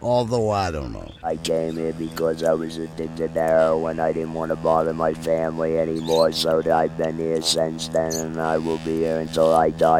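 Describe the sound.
Two pet lovebirds, Pretty Boy and Little Bit, kept in a cubicle, chirp in short, high-pitched bursts throughout, scattered in the background while a man speaks steadily over a low, constant hum.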